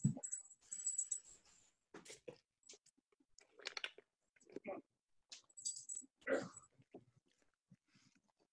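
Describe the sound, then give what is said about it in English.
A female dog barks at cats at night in several short, irregular bursts over about eight seconds, fairly faint, with scattered rustling and handling noises between the barks. “Sorry, she, she never barks, but this time of night she wants to bark at the cats that live on the continent things.”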